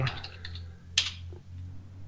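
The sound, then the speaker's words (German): A handful of keystrokes on a computer keyboard as the answer "one year" is typed in: quick light taps at first, then one sharper, louder click after a pause, all over a low, steady background hum. “Okay, dann tippt man nur jetzt ein Jahr.”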